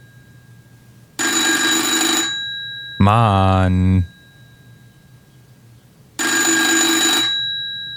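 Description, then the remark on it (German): An old rotary-era FeTAp 611 desk telephone's mechanical bell rings twice in long bright jangling bursts, with a short exclamation from a man between the rings. “Ab dem vierten Klingeln macht's mich wirklich aggressiv.”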